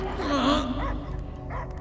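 dog barking

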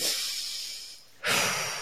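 deliberate deep breath

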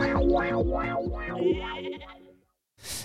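sheep bleating

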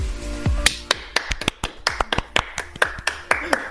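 hands clapping

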